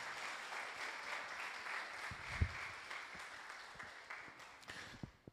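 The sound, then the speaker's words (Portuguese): An audience applauds the whole team that was present helping, in a steady, dense wash of many hands clapping, holding fairly even before gradually thinning out, with a few louder individual claps standing out near the end. “Nós vamos dar uma salva de palmas a toda a equipe que esteve presente, nos ajudando.”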